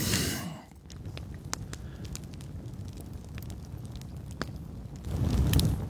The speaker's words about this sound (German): ja, mit dem Feuer mal zuhören, das knistert so schön. Genau. herrlich, herrlich. Mal die Hände wärmen.